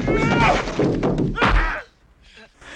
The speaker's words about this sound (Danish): Klippet i hvert fald, det lyder sådan her. To mænd, der slås.